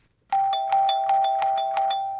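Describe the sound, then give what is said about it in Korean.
An apartment doorbell chimes a rapid two-tone ding-dong, repeating about eight times in a steady rhythm, loud, with the tones ringing on underneath and no voices; it opens a Korean pop song about the city. “아파트 초인종 소리로 시작하면서 도시의 화려하고도 쓸쓸한 풍경을 담아낸 유행가”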